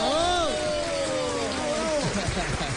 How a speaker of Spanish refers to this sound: Ha venido desde México y por eso este aplauso lo tiene que escuchar el planeta entero.